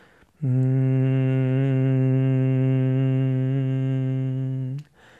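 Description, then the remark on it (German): A single steady hummed tone made while exhaling during Brahmari breathing, held evenly for about four seconds on one low pitch with rich harmonics, clear, then stopping abruptly as the breath runs out. “und beim Ausatmen erzeugst du einen Summklang.”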